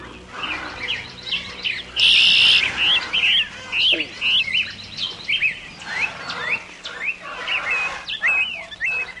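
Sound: birds chirping and trilling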